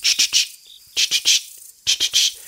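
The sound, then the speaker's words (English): A true katydid, a summer insect whose song sounds like 'Katy did', calls in repeated groups of three raspy, buzzy pulses, each cluster separated by a short pause, loud with no other sounds around it. “and people hear that mnemonic that Katy did, Katy did, Katy did.”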